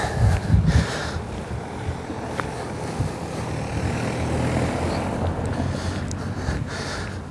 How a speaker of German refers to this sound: Ähm, lassen wir mal kurz das Auto vorbei.